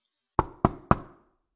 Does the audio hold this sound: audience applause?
no